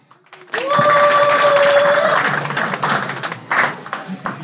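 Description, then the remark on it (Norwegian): An audience bursts into loud, sustained applause with scattered cheers and whistles, voting by applause for Stian to win the Tordentale talk contest; the dense clapping fades slightly toward the end. “Så den som mener at Stian burde få eh, æren av å vinne Tordentale, gi applaus.”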